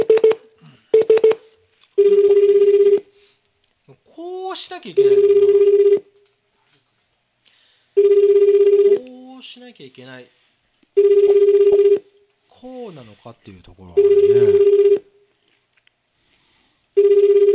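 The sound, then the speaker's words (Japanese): A few quick telephone dialing beeps as a call is placed on December 31, then a ringback tone buzzing in steady one-second bursts every few seconds, with a voice talking in the gaps between rings. “まあじゃあもう一人もう一人かけてかけてみます”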